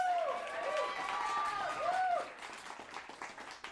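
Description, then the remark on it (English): An audience applauds a guest coming out to share his testimony, with steady, dense clapping at moderate volume, joined by a few whistle-like tones in the first two seconds, then thinning out toward the end. “A brief heart of the matter applause.”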